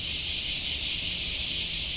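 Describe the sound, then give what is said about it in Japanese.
A dense, steady chorus of cicadas buzzing continuously on a windless late-summer day, a shimmering high-pitched drone filling the whole clip at an even, fairly loud level with no pauses and no voices. “うわー、このセミしぐれね。”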